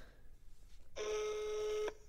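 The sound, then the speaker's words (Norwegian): A single steady electronic DTMF telephone tone sounds for about a second as a mobile number is dialed, over quiet background hiss, with no one speaking. “Nå tenkte jeg bare at jeg skulle ringe dem, se om de tar telefonen”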